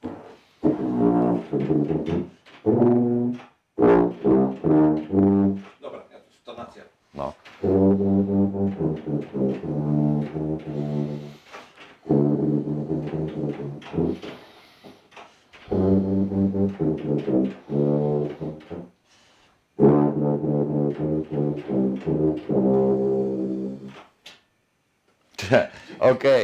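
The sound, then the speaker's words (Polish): A tuba plays a slow melody alone, a tune the player composed himself, played live at the end of a radio broadcast; its deep, buzzy notes are held in several phrases separated by short pauses, fairly loud and steady throughout. “Tak, zasuwaj do, tej, zasuwaj do tuby.”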